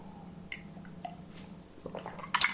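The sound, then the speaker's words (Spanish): A wet slurping sip of hot coffee from a cup, rising in the last second after a quiet stretch with faint clinks and a low steady hum underneath. “Después de un, un traguito de café ya, ya todo se ve más, más sencillo.”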